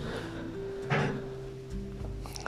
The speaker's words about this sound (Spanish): de la puerta que él tocó de la casa, solita, casi que abandonada, se empieza a abrir esa puerta hacia adentro, rechinando. Y de adentro deslumbra la pura oscuridad. Estaba la puerta entreabierta